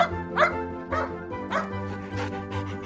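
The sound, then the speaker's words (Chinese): Harry, a white dog with black spots, barks repeatedly at a bird in the sky while running along a road, about five short, sharp woofs spaced roughly half a second apart, with a steady low tone running underneath. “还对着天空中叼着毛线的小鸟叫个不停。”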